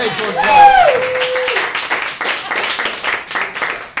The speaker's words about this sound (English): Round of applause for